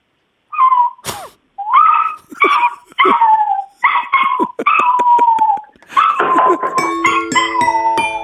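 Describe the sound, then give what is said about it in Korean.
A person imitates a puppy whining and whimpering as if shut outside a closed door and wanting to come in, a run of short high-pitched yelps and drawn-out whines repeated for several seconds, fairly loud, with no other talking. “방문이 닫혀 있는 상태에서 강아지가 들어오고 싶은데 못 들어오는 소리입니다.”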